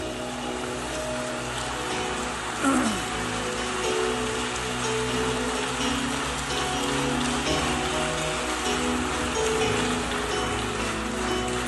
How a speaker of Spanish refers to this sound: Dale un aplauso al Rey, aleluya.